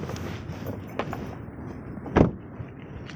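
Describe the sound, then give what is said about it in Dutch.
Keys jingle faintly before a single sharp click of a car locking, followed by a softer tap, with quiet outdoor background and no talking, on the Amsterdamse Vaart in Haarlem, Netherlands. “Mijn auto nu op slot en eh, mijn paspoort.”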